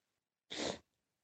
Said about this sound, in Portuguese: Depois você tira essa fungada minha aí em alta.